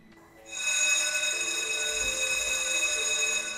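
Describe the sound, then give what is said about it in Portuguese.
An electric school bell starts ringing abruptly and keeps up a loud, continuous, buzzing high-pitched ring for about three seconds, with no talking over it. “Do nada, a campainha toca”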